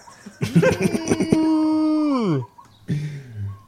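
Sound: cow mooing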